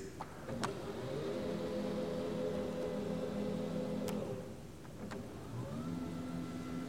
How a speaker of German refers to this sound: Was man da hört, ist der Aufzug der Rednerkanzel. Weil es sieht ja immer so aus, als ob die Menschen, die dort reden, genau auf der richtigen Höhe wären genau richtig groß und das macht man nicht mit kleinen Tritten, die man da ähm, drunter stellt